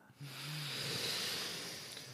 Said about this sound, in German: Vielleicht, vielleicht können wir jetzt mal mit äh, all unseren HörerInnen gleichzeitig einmal so richtig tief durchatmen. Das wäre das schön. Wir atmen jetzt alle mal schön ein.